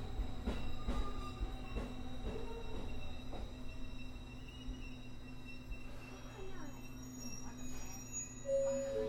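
A JR Kyushu 821 series electric train departs on its run from Futsukaichi to Hakata, rumbling steadily with a low drone, a rising motor whine and a few sharp metallic clacks near the start, and a brief high wheel squeal near the end.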